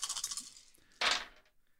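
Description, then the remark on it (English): A handful of dice, four d10s and four d6s rolled for a critical bite attack, rattles and clatters across a hard surface, a rapid jumble of clicks followed by a louder, sharper tumble before settling, with no voices. “And critical bite. Yikes. that's a lot of dice.”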